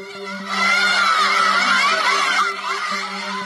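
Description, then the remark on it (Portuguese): Schoolgirls who have removed their veils, at a school near Tehran, Iran, shout and jeer together at a government official they expel, throwing objects and shouting that he should be ashamed: a loud, sustained uproar of overlapping voices swelling for a couple of seconds before easing slightly, with a steady electrical hum underneath. “Elas jogam objetos contra ele e gritam: você deveria ter vergonha.”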